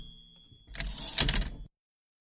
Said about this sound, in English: Yeah, I think I'm ready for some uh, typewriter.